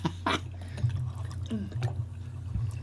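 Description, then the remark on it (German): A lightly chilled spirit is poured neat, without ice, into a glass for a blind tasting, with soft glugging splashes and a few drips spread over a few seconds, with no one speaking. “Jetzt kommt der Germeter pur, ohne Eis.”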